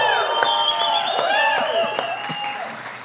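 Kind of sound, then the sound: crowd, audience applauding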